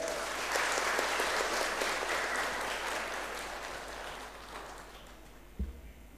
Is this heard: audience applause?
yes